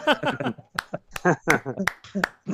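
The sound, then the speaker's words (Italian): A few sharp, irregular hand claps ring out, scattered through someone talking rather than forming a sustained round of applause. “Applausi per fibra.”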